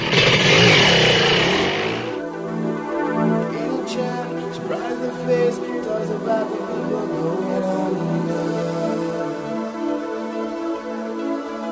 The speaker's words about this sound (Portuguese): Ligue o motor aí